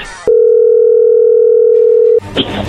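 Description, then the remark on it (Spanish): A loud, steady telephone dial tone holds for about two seconds, framed by brief bursts of background noise and voices at the start and end. “Pero bueno, vamos a llamarle en este momento.”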